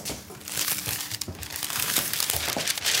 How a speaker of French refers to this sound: Alors, je découpe mon papier cuisson.